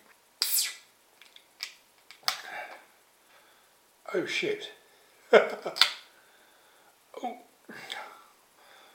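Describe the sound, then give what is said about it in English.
The tab of a cream-coloured Virginia Beer Co. beer can snaps with a sharp crack as it is opened, with a burst of foamy fizz dripping onto the table, followed by scattered clicks and hissing while a man exclaims and laughs. “The key tabs actually physically snapped as I opened it and dripping it all over the table because again it was very lively, very foamy.”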